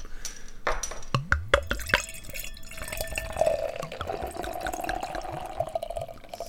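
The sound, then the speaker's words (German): A bottle of helles beer with a yellow label opens with a few sharp clicks and a hiss, then bright yellow-golden beer with white foam pours steadily into a glass, the gurgling tone rising slightly as it fills. No one speaks. “Mache ich mal auf. Klingt auch schon mal gut.”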